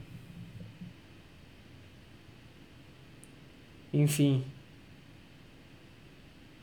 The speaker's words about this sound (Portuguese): Tá até no meio aqui do, do bagulho eu tive que mexer aqui no, no, no microfone, que tava, tá pegando chiado, né?